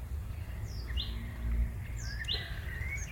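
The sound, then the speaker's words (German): Several birds chirp outdoors in the countryside, short high tweets repeating at irregular intervals, over a steady low rumble of background noise in open country. “Also wir haben schon äh, einen Hahn gehört und eben war auch ein Frosch. Kuckuck. Frosch zu hören. Kuckuck auch?”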